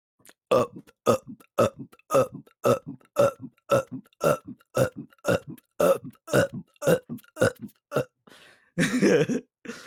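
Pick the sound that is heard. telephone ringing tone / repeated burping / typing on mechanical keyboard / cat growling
repeated burping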